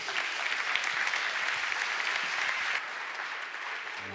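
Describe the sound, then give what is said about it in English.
Steady, dense applause from a large crowd at a church service as people come up to the stage to be baptized, a continuous wash of many hands clapping at once, holding strong before easing slightly in volume near the end, with no one speaking. “Can we give everybody a round of applause as they come up?”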